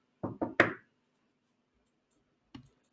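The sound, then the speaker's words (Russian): Three quick knocks on a wooden wardrobe beside a desk, made as a sound effect into a microphone set to stereo mode, in a rapid row, then after a two-second pause one softer knock, with no talking. “То есть ФБР, откройте дверь, пожалуйста.”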